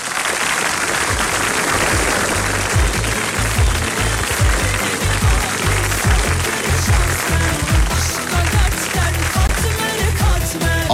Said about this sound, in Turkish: Bu alkışlar size gelsin sevgili dinleyenlerim.